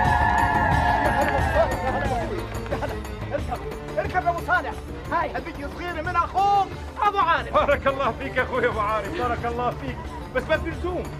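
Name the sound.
horse neighing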